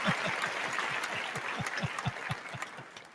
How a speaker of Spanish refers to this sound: Damas caballeros, si usted no aplaude, sabe como yo soy.